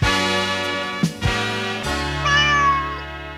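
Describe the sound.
A voice sings a short jingle for the cat Pepsi made of drawn-out imitated cat meows ("mjau"), about four in a row, fairly loud, with no other talking.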